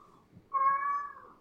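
A single loud, drawn-out meow from a cat named Ziggy begins abruptly and holds steady for about half a second with a tonal, nasal quality before fading, heard alone without any talking.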